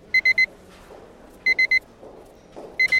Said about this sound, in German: Obwohl das Piepen schon relativ laut ist.